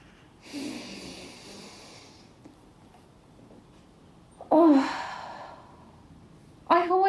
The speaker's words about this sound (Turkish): Derin nefes alıyoruz.